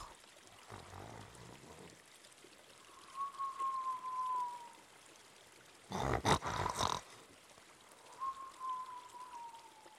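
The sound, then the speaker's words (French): Loud, exaggerated snoring repeats twice: a rough, rasping inhale followed by a long, gently falling whistle on the exhale, with no talking. “Il s'endort et se met à ronfler très fort.”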